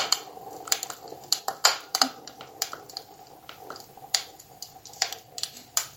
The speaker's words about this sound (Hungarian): Then just say Alexa, stop, when you're done listening. Now here is an hour of fireplace sounds.